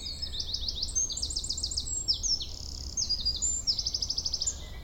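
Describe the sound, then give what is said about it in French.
A song thrush, the first bird to sing, sings on its own at dawn in a clearing at the Séglières marsh in the Beldon massif, its bright phrases built from rapid repeated notes in quick bursts, over a faint low background hum with no voices. “Nous avons rendez-vous avec la grive musicienne, première à vocaliser.”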